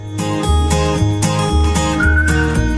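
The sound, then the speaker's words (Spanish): A whistled melody rises over a loud, full band with steady bass and drums, the whistling coming through clearly in the final second. “¿Y silbando ya?”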